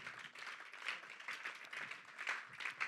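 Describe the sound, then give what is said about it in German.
A crowd applauds steadily for God, dense overlapping clapping, moderate in volume, continuing without pause and with no voices over it. “Lass uns Gott dafür mal einen Applaus geben.”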